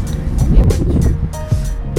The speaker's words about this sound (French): Quand on croise des scooters comme là, c'est un métier.